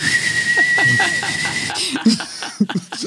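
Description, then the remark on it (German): A voice imitates a pressure cooker with a steady, high-pitched whistle over airy hissing, held for about a second, then gives way to chuckling and brief talk. “Dann würden wir wie so Dampfkochtöpfe rumlaufen.”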